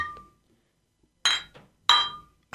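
Glass bottles clink together in a toast, two bright ringing strikes, each leaving a short shimmering tone, after a faint earlier tap.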